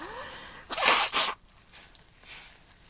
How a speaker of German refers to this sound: Die Taschentücher sind übrigens bei dir. Ich muss mal eben meine Nase putzen.